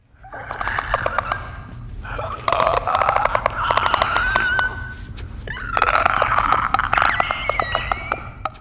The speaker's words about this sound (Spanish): a un zombie con la cabeza destruida y con no lo sé, dan mucho mal rollo además, hacen una especie de ruido, unos clics muy muy extraños. Os pongo un clip de audio ahora para que los escuchéis y veréis cómo da bastante mal rollo.